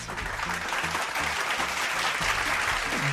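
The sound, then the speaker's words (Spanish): Sustained applause from a crowd, a dense, steady wash of many hands clapping at an even, fairly loud level throughout, with no pauses and no voices standing out. “Y por eso un fuerte aplauso nos ponemos de pie frente a ese trabajo maravilloso de Arias.”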